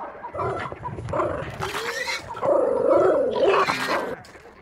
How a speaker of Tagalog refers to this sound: Ano ang tunog yun. Parang may umaangil na hayop ah. Mas 4 pa lang ng madaling araw eh.